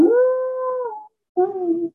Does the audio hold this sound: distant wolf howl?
yes